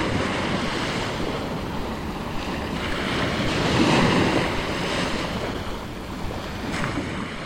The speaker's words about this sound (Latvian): Mangaļsala Tikko ir pabraucis garām kuģis, kas atmodina rāmos ūdeņus